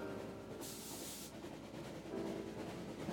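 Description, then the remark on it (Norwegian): A train travelling to Oslo, Norway, on a cold winter day rumbles steadily along the rails with a low, continuous roar, broken early on by a short sharp hiss like releasing air, then a slightly louder rattle toward the end. “Og en kald vinterdag kledde hun på seg kåpe og støvler og reiste med tog til Oslo.”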